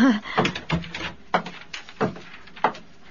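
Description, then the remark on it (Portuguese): A door opens with a series of creaks and wooden knocks, five or so uneven bursts spread over a few seconds, moderately loud with no talking. “Ao deparar-se com o custódio, que se levantara rápido assim que a porta se abriu, Albertinho ficou surpreendidíssimo.”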